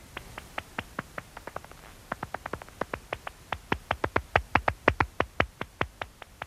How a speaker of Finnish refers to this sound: Pohjanlepakon kaikuluotausääntä ei voi kuulla paljainkorvin, mutta lepakko tutkalla, joka muuntaa yliäänet ihmiskorvin kuultavaksi, voi kuulla sen rytmikkään maiskutuksen.